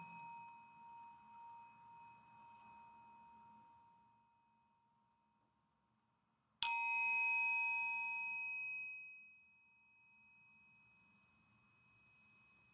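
A singing bowl is struck once, sharply, during a morning meditation, then rings with a shimmering tone that slowly fades, following the long hum of an earlier ringing bowl dying away.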